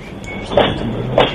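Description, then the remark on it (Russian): A steam locomotive pulling away, with a steady mechanical rumble and two distinct puffing bursts spaced about half a second apart, moderately loud, with no voices. “Как поезд уезжает, паровоз.”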